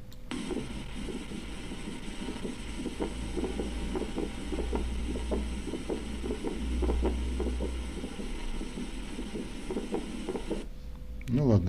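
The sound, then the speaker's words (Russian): A recorded heartbeat with a pulmonary ejection click, a sharp, high-pitched click just after the first heart sound, beating steadily for about ten seconds over a constant low hum, fairly faint and muffled. “Дальше у нас легочный щелчок изгнания.”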